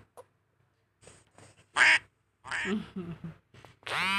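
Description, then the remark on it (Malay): A duck quacks several times in short, raspy bursts, fairly loud, with brief pauses between the calls and a longer, louder quack at the end. “Main-main lah itik ni.”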